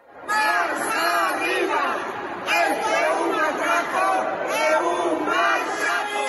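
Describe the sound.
A large crowd of protesting firefighters in Galicia shouts in unison, loud rhythmic chanting voices rising and falling in waves, with a brief drop around the middle before the chanting surges again.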